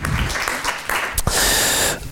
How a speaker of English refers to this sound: And now one big applause for all of them.